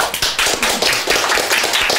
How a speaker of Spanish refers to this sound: Oigan, perdón, se me cayó el micrófono.